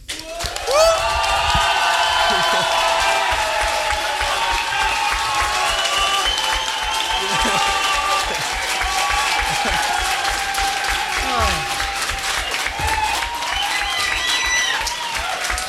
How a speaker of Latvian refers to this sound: Un tagad, dāmas un kungi, ar aplausiem sagaidām